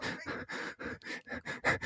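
Heavy, rapid panting close to the mic, about eight loud breathy gasps in quick, steady rhythm with no talking in between.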